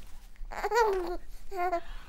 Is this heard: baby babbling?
yes